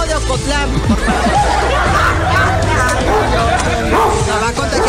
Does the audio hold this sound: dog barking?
yes